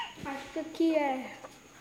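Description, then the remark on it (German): Chickens cluck in a quick run of short, throaty calls, the loudest in the middle, as they wander in and out at a school. A faint steady whine sits underneath. “Auch hier spazieren Hühner ein und aus.”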